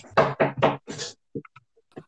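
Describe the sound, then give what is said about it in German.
Four loud, quick knocks on a door by the speaker's brother in a rapid cluster, followed by a few faint, scattered taps and small clicks trailing off into quiet. “Okay, jetzt müsst ihr euch daran gewöhnen, dass die ganze Zeit jemand an die Tür klopft.”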